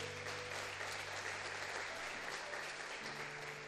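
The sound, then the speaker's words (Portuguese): An audience applauds Jesus steadily, a dense, continuous wash of many hands clapping at an even loudness throughout, with a low sustained hum beneath and no voices standing out. “Dá uma salva de palmas a Jesus porque Ele é bom.”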